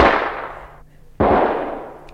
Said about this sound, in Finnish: Shh, ne ampuvat minne sattuu.